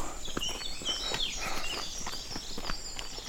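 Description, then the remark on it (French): Birds chirp and sing, thin bright calls layered over steady crunching footsteps on a walking path, with no one talking and no other noise. “Quel est ton plaisir sur le chemin bah, c'est des moments comme ça où t'as plus de bruit, t'entends juste les oiseaux.”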